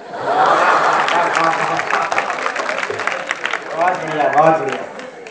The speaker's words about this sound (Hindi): ये पांच लाख ताली बजा रहे बहुत बड़ी बात है